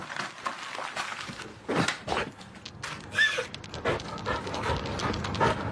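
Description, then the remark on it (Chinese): A husky acting in a film scene opposite actor Dou Xiao pants in quick, breathy bursts that rise and fall unevenly, with a short high-pitched whine partway through and some soft shuffling and knocking underneath; no one speaks. “跟窦骁对戏的哈士奇表现出了一条狗的正常反应，但其实，在汪星人界也有演技派的存在。”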